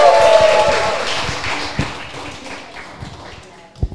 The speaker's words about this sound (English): Can we please show them some love? Round of applause, y'all.